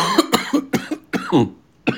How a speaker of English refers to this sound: man, I had uh, man, sorry about the coughing, people.